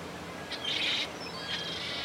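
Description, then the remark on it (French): A great many seagulls cry in two high, overlapping bursts over a steady background hiss, sounding like a flock calling, with no voices present. “Il y a énormément de mouettes.”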